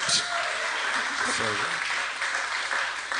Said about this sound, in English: I I I don't want to make fun of them for applauding that